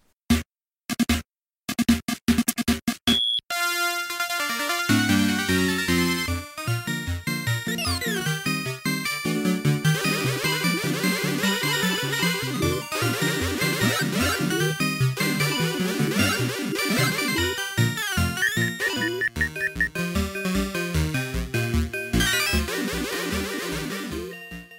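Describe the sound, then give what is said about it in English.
A few sharp electronic bursts open into nearly 25 seconds of busy, loud music from a 1985 Namco arcade video game, with bright beeping tones and swooping sound effects layered over it and no voices. “Featured game review. And it sounds like this.”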